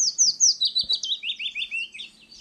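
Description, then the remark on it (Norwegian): A willow warbler sings a soft, sweet phrase of quick whistled notes that slide steadily downward in pitch and fade toward the end, heard clearly and alone. “Løvsangeren har en bløt, fløytende sangstrofe som faller i tonehøyde og dør litt bort.”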